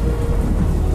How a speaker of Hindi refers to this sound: इतनी तेज बारिश और बादलों का गरजना कि जिसमें कुछ और सुनाई ही नहीं दे रहा था दोनों वापस उसी कमरे के अंदर गए और बिस्तर पर चढ़कर एक दूसरे का हाथ पकड़कर बैठे रहे पूरे कमरे में सिर्फ बाहर होती बारिश और तूफान की आवाज आ रही थी